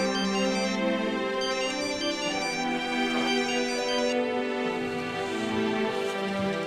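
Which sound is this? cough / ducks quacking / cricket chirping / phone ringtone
phone ringtone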